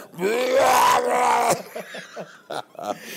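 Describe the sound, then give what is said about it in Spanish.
A voice lets out a long, strained, exaggerated cry lasting over a second, then a string of short grunts and effortful vocal bursts, imitating voice-acting screams for cartoon dubbing, loud. “se la tenía que hacer pasando gritando con sus gritos de”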